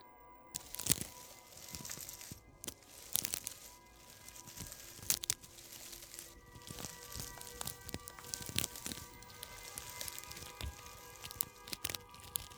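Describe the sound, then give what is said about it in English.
Another person's footsteps swish and crunch through tall, overgrown grass behind a bar in the dark, at an uneven pace, each step a dry rustle of stalks, with a faint steady hum in the background and no voices. “Tom paused for a moment when he realized that the footsteps he heard was not his own.”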